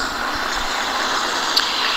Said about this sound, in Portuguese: E eu vendo aqui os ônibus passarem e alguns com uma fitinha branca